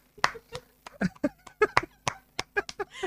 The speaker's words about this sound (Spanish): Ahí están los aplausos, gracias.